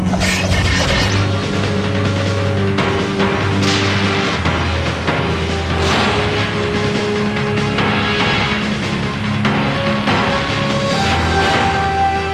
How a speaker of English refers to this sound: Hear the sound. Razor sharp adamantium claws make when they extract their revenge.